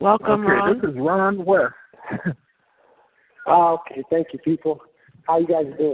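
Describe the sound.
A caller's voice over a thin, band-limited phone line, with an echo trailing the words, plus a short laugh and pauses between phrases.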